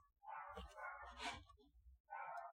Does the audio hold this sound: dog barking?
yes